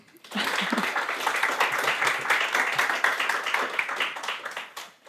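An audience bursts into applause for a literary critic being introduced, a dense, steady wash of many hands clapping that holds for about five seconds before tapering off at the end.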